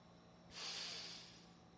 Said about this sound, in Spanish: La profunda respiración de nuevo y volvemos a la actividad en la que nos encontramos.